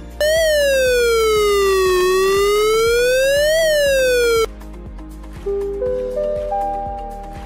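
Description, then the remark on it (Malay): A loud flood warning siren from a siren station wails, its pitch sliding down and back up, then cuts off and gives way to a series of stepped tones climbing higher; this warning-level siren sounds when river water exceeds the warning level and can carry 1 to 2 kilometres. “Pertama, bunyi siren amaran.”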